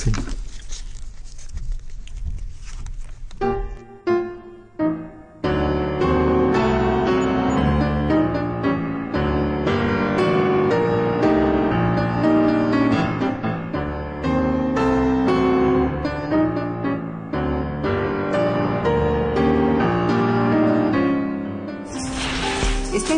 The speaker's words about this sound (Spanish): Vamos a un puente musical a ver si nos alegramos un poco.